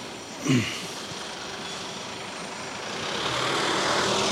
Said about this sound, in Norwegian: Kommer en bil til her. Jeg tror jeg ja, kan slippe fram han, da. slipper fram han. blir litt tra trangt her.